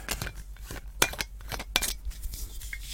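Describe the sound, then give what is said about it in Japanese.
Glassware clinks as a drink is poured into a glass, recorded with a Blue Yeti stereo USB microphone, with two sharp, bright chinks standing out among softer taps and light clatter over a low steady hum, no voices. “いやこのマイクやっぱりいいねこれすげえお手軽でいいんですよねこのマイクはああいいんじゃないですかこの飲み飲み物を入れるだけでもね”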